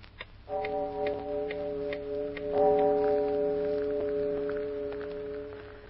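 A clock chimes two deep, resonant strokes a couple of seconds apart, striking two o'clock in the morning, each tone ringing on and slowly fading, while a steady ticking continues underneath. No one speaks.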